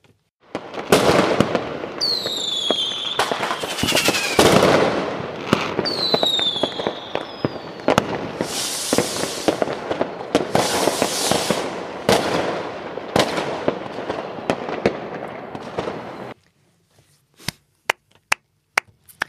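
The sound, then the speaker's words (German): A dense fireworks barrage of rapid crackling bangs, with rising whistling streaks early on, rolls on loudly for about sixteen seconds before stopping, then a few sharp isolated pops follow. “Das Feuerwerk kommt jetzt.”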